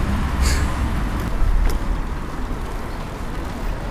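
road traffic passing

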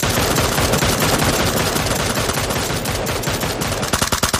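video game gunfire

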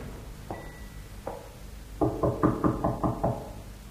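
knocking on a door

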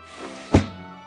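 door slammed shut

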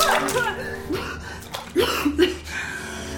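gasping

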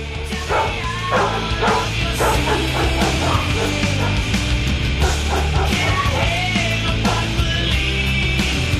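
dogs barking

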